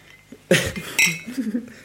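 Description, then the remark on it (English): Glasses clink together twice in quick succession in a toast, bright with a short ringing tone, followed by a faint murmur of voices. “Cheers, guys. Right. Cheers.”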